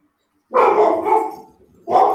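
A dog barks loudly: one long, drawn-out bark, a brief pause, then a second bark starting just as the sound cuts off. No one speaks.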